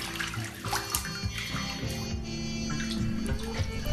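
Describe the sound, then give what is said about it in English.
Bathwater sloshes and gurgles steadily as a tub drains, a continuous watery rush with small splashes and swirling noises throughout, no voices. “Well, my water's getting chilly and my fingers are all pruny, so I'm going to drain my water here.”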